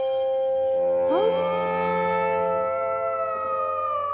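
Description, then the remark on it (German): A mother wolf calling her young howls faintly from far away in one long, mournful call that rises in pitch and then holds a steady, drawn-out tone. A low background hum sits beneath it, and no one speaks. “Und plötzlich hat Mina verstanden, das ist die Wolfsmutter, wo ihrem Jungen ruft.”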